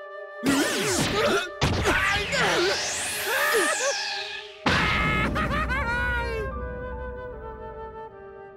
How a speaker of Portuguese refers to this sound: A cena do Luffy socando a cara do cara, o cara tá, tá, tá destruído no chão, mano. Muito bom. Essa cena é belíssima.